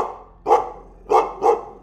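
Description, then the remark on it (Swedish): A menacing growl of some kind of canine, farther away in a forest, a low rumble broken by three harsh, snarling bursts in quick succession, fairly loud with no voices present. “Du kan höra ett hotfullt morrande ett ljud av någon typ av hunddjur.”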